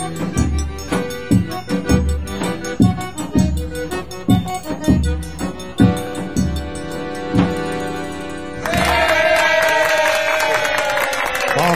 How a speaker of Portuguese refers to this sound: Palmas da multidão eletrônica da Tabajara Revista.